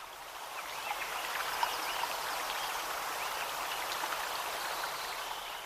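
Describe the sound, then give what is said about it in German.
Steady babbling of a stream, a continuous bright splashing and trickling that stays even throughout, with no voices or other sounds breaking through. “Ja, da ist dann nicht mehr viel außer plätscherndes Wasser.”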